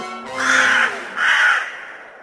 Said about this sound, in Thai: มันคิดว่าหมาจิ้งจอกจะต้องประทับใจในเสียงอันแสบแก้วหูของมันมาก อีกาจึงได้เงยหน้าขึ้น แล้วก็เริ่มร้อง